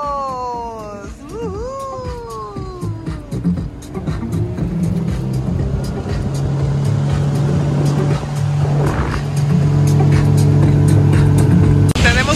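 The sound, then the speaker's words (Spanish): A small rental motorboat engine revs with wavering, rising tones, then settles into a loud, steady low drone with a buzzing harmonic hum that persists to the end, on icy water at the start of winter. “Es el último día de rentas de barquitos porque ya viene el mal tiempo.”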